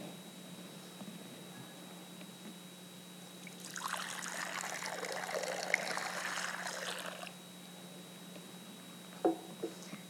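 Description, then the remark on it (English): Water pours steadily into a baptismal font during a church service for about four seconds, a soft trickle over a quiet hum, followed by a couple of small splashes or clinks. “I invite you to come forward during our last two songs and to touch the water once again.”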